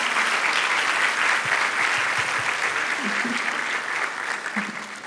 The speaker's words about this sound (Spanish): Me gustaría mucho que les diéramos un aplauso a todos ellos en esta mañana, de verdad.